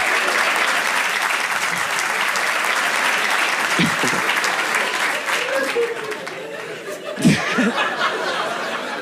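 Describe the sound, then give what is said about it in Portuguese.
Steady, dense audience applause fills the whole stretch, a continuous wash of many hands clapping, with a few brief bursts of laughter and voices rising through it near the end. “Ih, a galera aplaudindo o pai.”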